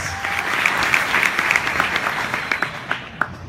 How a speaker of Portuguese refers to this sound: Então uma salva de palmas para você, você é só nota 10 aqui do Brasil, galera.